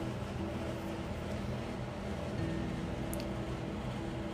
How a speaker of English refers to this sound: And if you can hear a, low humming in the background, it is the constant protestation of the air conditioner since it's really hot here and beautifully muggy.